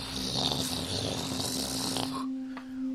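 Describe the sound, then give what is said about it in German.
A voice imitates grinding, rumbling stone steps sliding out of the rock to form a staircase as a character moves his hands and touches the stone, a continuous rough, growly rasp with a steady low hum underneath, fairly loud for about two seconds before cutting off to quieter noise. “Und langsam mit einem lauten Grollen und Schütteln sich dort richtige Stufen aus dem Stein herausschieben.”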